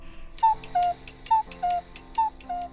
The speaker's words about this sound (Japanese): そこで壁掛けの鳩時計がいきなりポッポーと泣いた。扉を開けて何度も出てくる小さな鳩を二人で見てしまう